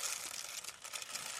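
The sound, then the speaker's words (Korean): Rice grains pour steadily into a plastic bottle with a very small mouth to make a toy shaker, a continuous dense rattling hiss that stays at an even, moderate loudness throughout, with no voices. “자, 쌀 들어가는 소리 들리시죠, 여러분들?”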